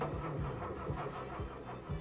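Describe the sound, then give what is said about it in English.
A time machine car's engine, out of plutonium, sputters and cranks over and over in a steady, rhythmic chug, fairly loud, never catching into a smooth run as someone tries to restart it. No one speaks. “Suddenly, the car's engine died. Marty tried to restart it, but it was no use.”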